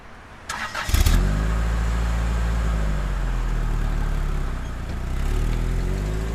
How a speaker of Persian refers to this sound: ماشین رو روشن کردم که راه بیفتم